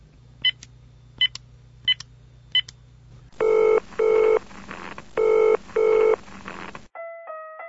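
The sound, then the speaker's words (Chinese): A phone number is dialed on a mobile phone to call a toilet fee inquiry line: four short, high keypad beeps spaced evenly, then loud ringback tones in two double-ring bursts, ending with a brief steady electronic tone. “飞猪拿起了手中的手机啊，他开始拨打电话。”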